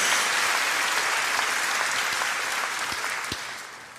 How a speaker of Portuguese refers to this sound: E a igreja de Jesus, pode dar salva de palmas, a igreja de Jesus